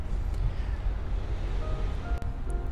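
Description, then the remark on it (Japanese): Steady outdoor rumble of wind and surf at the seaside, a continuous low wash of noise with gusty buffeting and no clear breaks, heard alone without speech. “私は、えー、っと毎日海辺に来るのでそこで何か始めようと思って”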